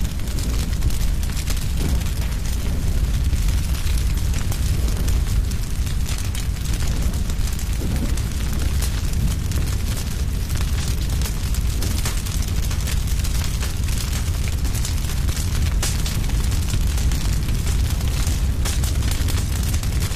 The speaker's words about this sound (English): Today, we thought we'd uh, spend time with the forest and hear the sound of a forest fire raging through a pine forest.